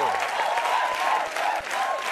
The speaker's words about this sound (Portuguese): Pode aplaudir